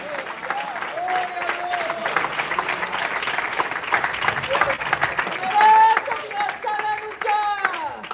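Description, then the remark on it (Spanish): A crowd applauds steadily for several seconds, a dense wash of clapping hands mixed with cheering voices and a few higher whoops rising above it toward the end. “Apláudale, aplaudan”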